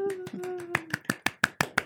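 A short burst of close, steady hand clapping, the sharp claps coming in a quick even rhythm and growing crisper, with a brief sustained voice-like tone underneath at the start.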